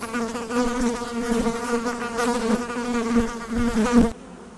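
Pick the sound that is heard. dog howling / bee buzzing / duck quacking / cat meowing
bee buzzing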